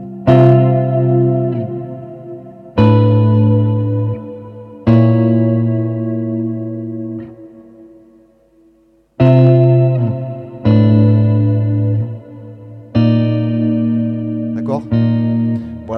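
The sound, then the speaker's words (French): An electric guitar plays an unusual chord with two low and two high notes, two notes attacked with the pick and another with the middle finger, struck about seven times at uneven intervals, each strum ringing out and slowly fading, with a bright, effect-tinged tone and no talking. “travailler techniquement avec deux notes attaquées au médiator et le majeur qui en joue une autre.”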